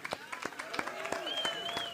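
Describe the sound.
An audience applauds a musician with a steady patter of claps, mixed with cheering voices and a few rising whoops over the top.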